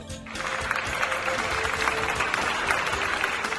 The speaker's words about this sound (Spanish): Un aplauso para